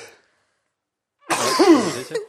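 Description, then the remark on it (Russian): A single loud sneeze from a person with a cold bursts out after a moment of silence, a sharp explosive blast with a breathy tail, standing alone with no talking around it. “Я чихнул, да”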